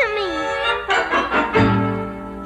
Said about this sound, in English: the train! I mean the whistle! It talked